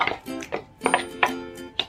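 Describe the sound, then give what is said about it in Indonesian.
A spoon stirs a mixture with added cinnamon powder in a bowl, clinking against its side several times in an uneven rhythm, with short ringing tones after each tap. Moderately loud, with no talking. “Jadi terserah, tapi jangan terlalu banyak ya aduk-aduk dulu”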